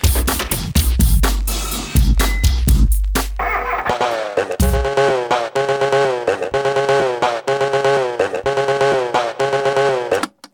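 A rhythmic electronic music track recreated from film sound effects, including from the Texas Chainsaw Massacre and The Shining, built from harsh, buzzing chainsaw-like engine sounds, with choppy revving bursts up front giving way to a steady, loud beat with tonal pulses.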